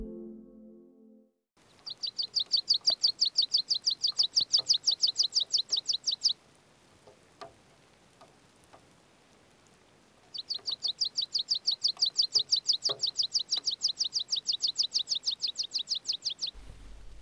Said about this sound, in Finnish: Varpusen kokoinen, viiruinen ja vaatimattoman näköinen niittykirvinen jää yleisyydestään huolimatta maalikolta helposti huomaamatta tai ainakin lajilleen määrittämättä.